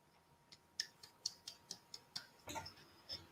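A clock ticks in a steady, fairly quick rhythm, each crisp click clear and close, with a brief louder rustling burst near the end and no voices.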